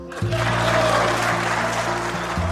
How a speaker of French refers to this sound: Quand on revoit la vidéo, on voit qu'il quitte a la tribune euh, très émue et elle va être longuement applaudie par les députés de gauche qui, à l'époque, ont la majorité à l'Assemblée.